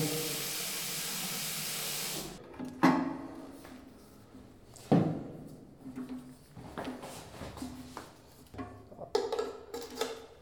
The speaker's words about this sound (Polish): Najpierw wodę puszczę żeby nagrać. O, już puściłem wodę.